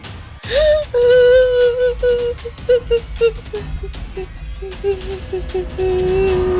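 A voice lets out a long, loud wail that wavers and breaks into sobbing pulses, then holds a drawn-out moaning note for several seconds, imitating a mother's miserable cry of disappointment.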